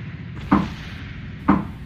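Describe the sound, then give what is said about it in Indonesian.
Two hollow knocks on the door of a bedroom at night, about a second apart, each a short dull thud that fades quickly over a faint steady background hiss. No one speaks. “di balik si pintu yang ada di kamarnya dia itu ada yang ngetok. Lo tahu gak sih ketokannya gini-gini suaranya?”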